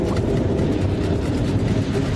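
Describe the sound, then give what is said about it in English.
A subway train rumbles by beneath an apartment, a loud, steady low roar with rattling undertones that fills the whole couple of seconds without letting up. No one speaks. “Right above the subway!”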